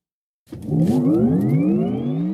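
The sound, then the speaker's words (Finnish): After a moment of silence, a car engine roars up loudly through its exhaust, the throaty growl climbing steadily in pitch as it revs for about two seconds, with no voices. “Sähköautomiehet ei puhuta pakoputkista.”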